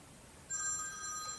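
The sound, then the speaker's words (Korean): A telephone starts ringing partway through, a steady electronic trill with bright layered tones, clear against a quiet low hum, with no one talking. “이런 전화는 받으면 안돼 꺼버려야 돼 아휴 아 이번엔 누군데 아이고 그 이상한 여자 자꾸 전화질 하는 거야”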